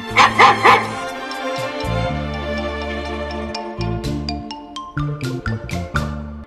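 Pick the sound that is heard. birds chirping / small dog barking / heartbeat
small dog barking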